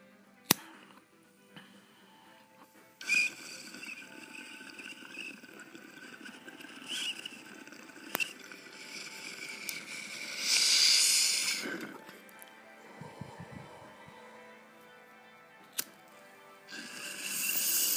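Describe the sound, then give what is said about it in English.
Water bubbles and gurgles in a bong during a hit, a steady, rattling stream for several seconds, with a sharp hiss partway through and a few clicks and knocks around it. “Cheers, you stoners. Bong tokes.”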